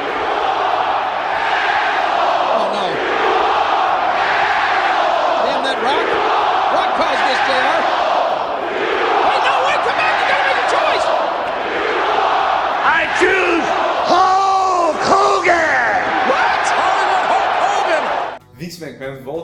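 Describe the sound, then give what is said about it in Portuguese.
A huge arena crowd at a WWF SmackDown wrestling event chants "You are an asshole" in unison as a wrestler is picked for SmackDown, the repeated phrase rising and falling in loud waves for nearly twenty seconds before cutting off abruptly. “para transferir mais um lutador de SmackDown ao som do You Are an Asshole da plateia.”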